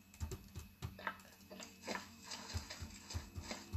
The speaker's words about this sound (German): Hier hören sich die Schritte auch ganz anders an.